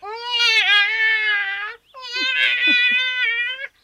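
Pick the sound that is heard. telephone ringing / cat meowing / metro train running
cat meowing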